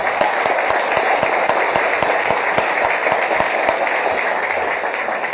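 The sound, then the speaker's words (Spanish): A crowd applauds steadily and loudly, dense clapping filling the whole stretch with a few sharper individual claps standing out, no voices heard. “Invitado, te puede pasar también a ti, en serio, si aplaudes con ganas, te puede pasar también a ti porque eso quiere decir que crees que puede ser.”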